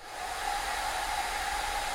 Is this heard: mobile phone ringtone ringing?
no